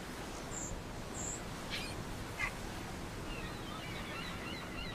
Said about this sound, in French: Tout était calme et l'on entendait surtout les mouettes et le bruit des vagues.